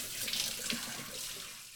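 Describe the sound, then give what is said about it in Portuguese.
Water from a shower runs in a steady, hissing spray, with faint irregular splashes, continuous throughout, with no voices. “A menina abriu o chuveiro e as primeiras gotas começaram a cair.”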